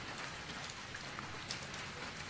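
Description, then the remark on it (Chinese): Steady rain falls at night in a continuous, even hiss, with scattered individual drops pattering through it at a constant moderate level. No voices can be heard. “一夜的雨声，说些什么呢？”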